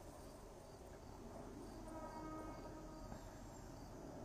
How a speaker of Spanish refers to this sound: Oye, em, ese es el tren. Hay un tren que pasa por allá, por el otro lado.